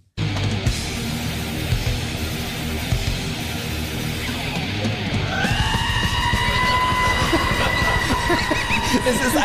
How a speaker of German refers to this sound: einfach, es ist einfach original eine, es ist wirklich eine Ziege